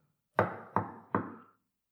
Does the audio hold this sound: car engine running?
no